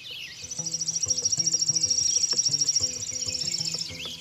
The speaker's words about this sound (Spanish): Pero una noche, mientras cazaba a un ciervo, escuchó algunos pájaros que trinaban asustados.